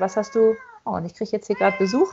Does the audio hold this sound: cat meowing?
yes